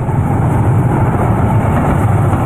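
A tram rumbles along a city-centre street in Berlin, 1939, at night: a loud, steady low mechanical drone with a rattling rail-vehicle texture that holds evenly for the whole moment, with no voices.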